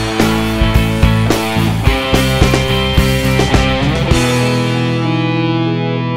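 A pop song plays loudly with fuzzy, distorted guitar and steady rhythmic hits, then closes on one held chord that rings out and slowly fades over the last two seconds.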